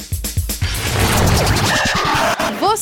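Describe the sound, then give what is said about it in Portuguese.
A loud burst of sharp cracks and pops from a refrigerator and stove creaking at night as temperature and humidity change, with several distinct knocks at first and then a dense, rattling clatter, ending in a few brief squeaky chirps. “sabe por que móveis como geladeira e fogão estalam à noite? Pronto, esses barulhos aí indicam simples mudança de temperatura e de umidade ao longo do dia.”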